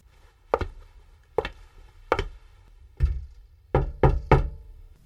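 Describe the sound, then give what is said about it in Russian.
Knocking on the neighbours' wooden apartment door, solid: four slow, evenly spaced knocks followed by a quicker burst of three, with no voices. “Спустя примерно месяц после въезда в эту квартиру герой впервые постучался к соседям.”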